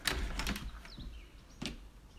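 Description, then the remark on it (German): A window in a council housing block in Ottakring is opened with a few quick clunks and a scraping rattle, followed by another sharp knock, while faint spring birdsong chirps in the background. “Ich mache das Fenster auf und die Vögel”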